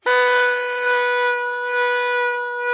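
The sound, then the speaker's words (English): A party noisemaker blares a steady, reedy buzz, one continuous loud blast lasting a few seconds with a slight wavering in volume, with no voices. “That sounds like a duck or like a no. fly you want to swat. But yeah. no, it's one of those noisemakers.”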